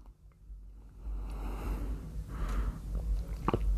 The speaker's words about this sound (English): so I can take a sip of coffee